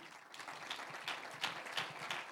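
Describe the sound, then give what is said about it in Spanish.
A church audience applauds for the Lord during a Spanish-language sermon, a dense patter of many hands clapping steadily for a couple of seconds, with a few louder bursts rising above the wash of claps. “Un aplauso al Señor.”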